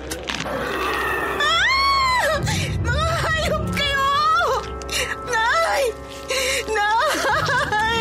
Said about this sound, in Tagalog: Ang kapatid ko, napasigaw ako sa sobrang takot.